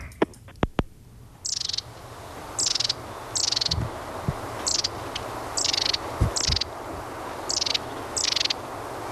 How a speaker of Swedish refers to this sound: Och vi tar och lyssnar till stjärtmesen.